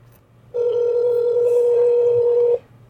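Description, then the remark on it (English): A phone call ringing out: one steady, mid-pitched ringback tone holds for about two seconds, then cuts off, over a faint low hum with no talking. “we'll see if she answers.”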